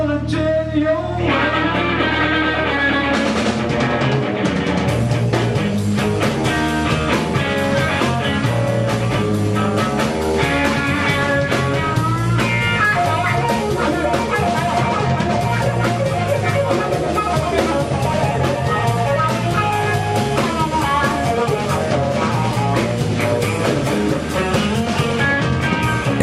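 A loud, dense live rock performance with driving electric guitar, steady bass and drums, playing continuously at full volume for the whole stretch with no talking over it.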